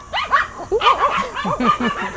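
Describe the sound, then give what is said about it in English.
About 15 dogs being walked by a woman in Ibiza bark and yip over one another in quick, overlapping bursts, a busy chorus of high-pitched barking that never lets up over the couple of seconds. “lady walking about 15 dogs, as you do in Ibiza.”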